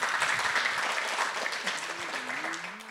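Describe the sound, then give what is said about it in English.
A crowd applauds steadily, a dense wash of many hands clapping at once, fairly loud throughout, with a faint voice murmuring underneath toward the end. “Yeah, you can clap.”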